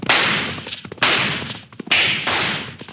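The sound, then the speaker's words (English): Four loud gunshots, fired over the heads of road agents, ring out one after another at uneven intervals, each a sharp crack that trails off in a hissing decay, with no voices in between. “Yeah, partner. Fire a couple over the heads.”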